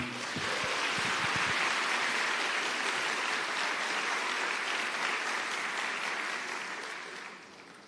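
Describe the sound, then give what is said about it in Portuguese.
Steady applause from an audience, a dense wash of many hands clapping at a consistent level for several seconds before tapering off at the end. “Pode aplaudir isso aqui.”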